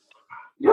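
Dogs barking: a faint yip and a brief mid-level bark, then one loud, sharp bark at the end, with no talking.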